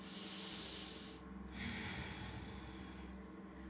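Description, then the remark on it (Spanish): A slow, deep breath drawn and released through the nose during a relaxation exercise, a soft airy hiss rising and easing over a few seconds with no talking. “Recuerden hacer todo eso por la nariz respiras profundo, exhalas.”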